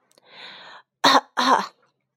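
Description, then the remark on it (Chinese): An elderly storyteller clears his throat before beginning a story: a soft breathy rasp, then two louder, gruff harrumphs in quick succession, with no talking. “故事爷爷清了清嗓子，开始念起了魔法咒语：”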